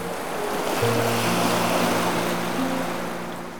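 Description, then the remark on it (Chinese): Steady ocean surf rushes in a broad, continuous wash of noise, with a low motor-like hum running underneath and no voices. “自以为是的人儿，面对大海放声大吼时，似乎也难敌潮声的此起彼伏。”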